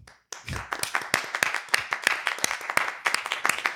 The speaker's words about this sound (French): Est-ce qu'on s'applaudit Ouais. Parce que c'est cool de s'applaudir.